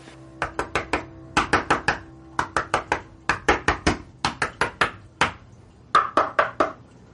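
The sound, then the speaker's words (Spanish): Sharp hard knocks on floor tiles as Río tests them, looking for a tile to hide money behind, tapped in quick bursts of three to five with short pauses between groups, clear and fairly loud, with no voices. “Río sonríe a Tokio y comienza a tantear baldosas.”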